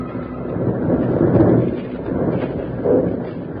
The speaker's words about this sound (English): Jingles were trapped by one of the most deadly perils of the snow country, a snow avalanche started by the two bank robbers high up on the slope. As the great slide swept past the lawmen, the outlaws watched it until the clouds of loose snow settled.